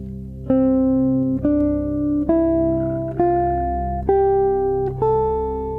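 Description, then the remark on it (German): An ascending scale, close to a major scale, played as about seven steady, sustained notes on a buzzy, electronic-sounding tone, each step rising evenly about once a second, with no voices. “Die nächste Skala ist auch angelehnt an die Durtonleiter.”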